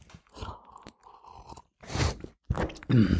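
Wet chewing and crunching of food in the mouth, with a few gulping swallows and soft groaning noises between bites, no talking.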